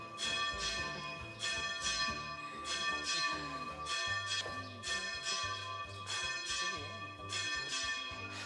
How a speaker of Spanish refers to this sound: Y más aún si hay que estar haciendo esfuerzos para imponerse al sonido de las campanas de las claras. También les digo, en cuanto pasen las campanadas de las once y media,